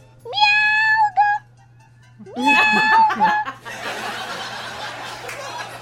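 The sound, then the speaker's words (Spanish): A person imitates a cat with two drawn-out, high-pitched meows as a joke told in cat language, loud, followed by a stretch of breathy, noisy laughter. “Nivel de lenguaje Michi.”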